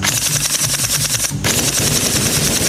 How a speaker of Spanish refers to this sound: Salté por la ventana al tiempo que se desataba la balacera en las escaleras.